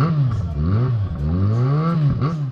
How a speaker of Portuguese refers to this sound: vai que tá passando a moto ainda. Meu Deus, que barulho. Como algo que faz tanto barulho pode andar tão devagar, cara. Não faz sentido.